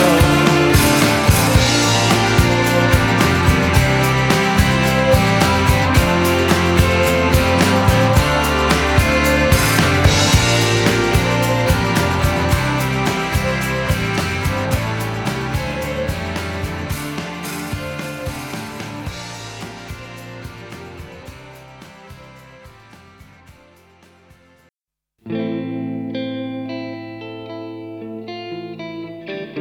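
A rock band song plays loud and dense, with distorted guitars and steady drum hits, slowly fading down before a sharp cut into a brighter, sparser piece of music.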